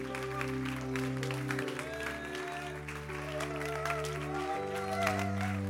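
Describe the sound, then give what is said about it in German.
An audience applauds steadily for about six seconds as performers come onto a stage, dense overlapping claps at an even loudness, with music holding deep, shifting bass notes underneath and a few faint high whistles. “Stehen wir auf, geben wir einen Applaus.”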